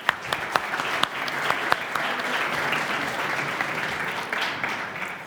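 A crowd claps steadily for about five seconds, a dense wash of hand claps with a few sharper, louder claps standing out near the start.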